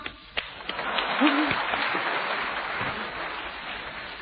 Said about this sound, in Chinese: 大家注意了啊！鼓掌。